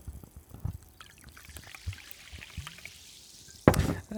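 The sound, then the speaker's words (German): Water pours and trickles into a glass, a steady gurgling stream with scattered small knocks, ending in a sudden louder splash or clunk near the end. “Wasser, Wasser, Wasser, Wasser.”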